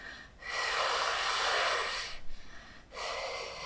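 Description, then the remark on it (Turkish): A person doing a calming breathing exercise: a long, airy breath drawn in, a quick second sip of air on top of it, then a steady breathy exhale, clear with no talking. “iki kez nefes aldığında bunlar daha fazla şişiyorlar ve dolayısıyla e, nefes veriş daha etkili hale geliyor”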